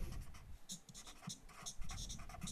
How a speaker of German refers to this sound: Da höre ich die Stifte quietschen.